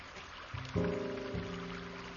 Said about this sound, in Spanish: Arroyo. Un arroyo. Seleccionado. Arroyo.